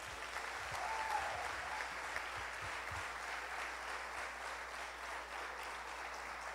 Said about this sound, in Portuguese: Amém? Você pode aplaudir a Jesus?